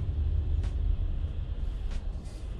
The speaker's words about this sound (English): That concludes this drive in. I'm in traffic.